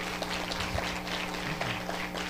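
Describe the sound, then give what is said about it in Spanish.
A crowd of people in Agua Iba de Delicias claps steadily for a couple of seconds as a greeting to listeners, a dense, even patter of many hands, with a low hum underneath and no voices rising above it. “Y que toda la gente aquí de Agua Iba de Delicias da un aplauso y un saludo a los que nos están oyendo, ¿verdad?”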